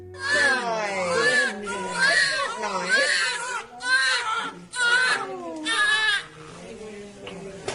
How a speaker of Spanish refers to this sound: Bien, el caso es que al limpiarles les separan solo un momento, un momentito, pero enseguida comienza el llanto. Los dos se ponen a llorar a la vez.